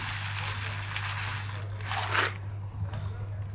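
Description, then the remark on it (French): A coffee grinder set to fineness 2 grinds light-roast beans automatically into a portafilter placed beneath it, with a low motor hum beneath a gritty, crunching hiss that continues throughout and briefly swells before easing off near the end. “Le porte fil se met en dessous du moulin et va moudre automatiquement dedans.”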